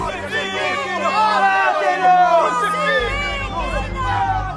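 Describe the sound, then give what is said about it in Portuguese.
A large crowd clamors and shouts together, demanding the death of Jesus before the Roman governor; many overlapping voices form a loud, continuous roar that stays intense throughout, with a low rumble rising toward the end. “Mas a multidão exige a sua morte.”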